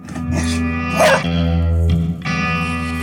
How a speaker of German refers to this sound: Wollt ihr wissen, wie laut der Redaktionsbeagle ist?